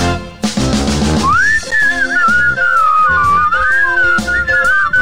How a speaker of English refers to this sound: Gotta wet my whistle. We're almost to the part of where I start to whistle.